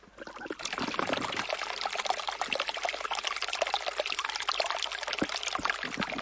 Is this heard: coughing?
no